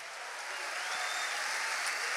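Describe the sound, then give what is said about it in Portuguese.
An audience at a church service applauds God together, a dense, steady wash of many clapping hands that holds level and even swells slightly across the whole stretch, with no talking over it. “Quem pode dar uma salva de palmas ao nosso Deus aí?”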